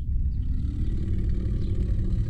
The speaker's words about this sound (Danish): Men i det samme rullede et dybt brøl op mod dem, nede fra bunden af kløften.